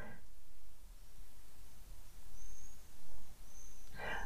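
Faint birds chirp outside a large window on a sunny day, with a few thin high tweets scattered over a quiet background hiss. No one speaks during the chirping.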